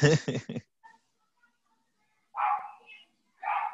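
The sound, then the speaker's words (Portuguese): A dog barks in short bursts: a loud bark at the start, then two more separated by pauses of near silence. “Agora ele voltou, Latião.”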